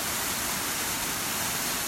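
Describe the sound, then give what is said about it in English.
A small waterfall, with wet moss running up to its top, pours steadily onto boulders and logs at the bottom, then flows over dark black obsidian rocks, making a continuous hissing, rushing roar with a bright, splashy edge and no pauses. No one speaks. “it's just crashing down on all these boulders and logs and stuff at the bottom and then flowing obsidian down ones.”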